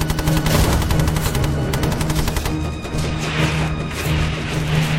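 Rapid bursts of covering gunfire from the LOC crackle continuously, dense and loud, as Clark and Company B close the gap to their comrades in battle against enemy troops; sharp repeated shots layered over a heavy rumbling background, no voices audible.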